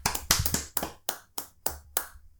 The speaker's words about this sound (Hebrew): אבישג, כל הכבוד לה. כל הכבוד לה. מגיע לה קצת מחיאות כפיים.